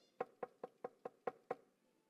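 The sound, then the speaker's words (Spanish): Six firm knocks on a wooden door of a house, evenly spaced at a brisk, steady rhythm, clear with nothing else around them. “Porque me di cuenta cuando llegué acá que habían personas que de lunes a viernes, de lunes a sábado, no sé, antes de la pandemia, yo no sé si llegaron a su casa alguna vez, pero llegaban y tocaban la puerta.”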